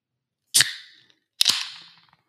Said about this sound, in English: But that was yes, an, an really intense can crack.